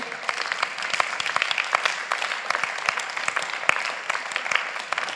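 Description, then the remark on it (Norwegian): An audience in a church clapping together with enthusiasm that God is good, in a dense, steady wash of applause, many sharp hand claps blending into a continuous crackle that holds at an even level throughout, with no voices standing out. “All grunn til å klappe av begeistring for at Gud er god!”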